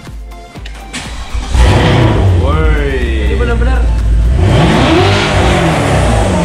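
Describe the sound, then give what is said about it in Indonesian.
A 600-horsepower Porsche turbo sports car engine starts and revs loudly, its deep roar rising and falling in pitch over several seconds, with brief exclamations from people nearby. “Kalau ini yang benar-benar suaranya tuh kalau kedengeran dengerin dingin.”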